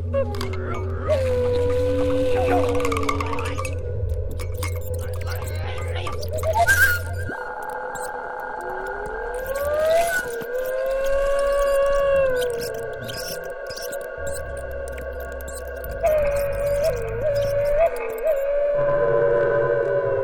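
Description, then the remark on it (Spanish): Electronic computer music unfolds in shifting layers: steady synthetic drones, sliding pitch glides and high sustained tones, changing texture every few seconds at a moderate, even loudness, with no voices. “escuchamos para Bicachiluni de Roberto Morales, una obra para computadora que, como decías, es infinita.”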